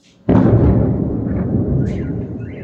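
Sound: distant explosion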